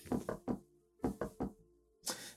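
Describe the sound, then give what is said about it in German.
Knocking on a door, two quick sets of three raps separated by a short pause, followed by a single duller, noisier thump. Fairly clear, with no voices. “Und wird äh, ohne auszuprobieren, ob die Tür offen ist, gegenklopfen.”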